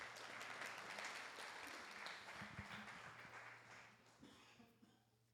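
During a church service, a crowd applauds steadily for one of the pastor's sons. The dense clapping is somewhat subdued and gradually thins and fades out over several seconds, with a low hum underneath.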